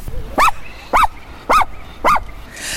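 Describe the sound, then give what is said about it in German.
A dog named Lemmy barks four times in an even rhythm, each bark short, loud and sharp with a slightly yelping, mid-pitched tone, followed by a faint hiss at the end. “Das ist übrigens Lemmy, der heute mal ähm, Teil unseres Podcasts ist.”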